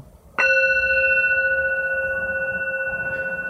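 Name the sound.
gong being struck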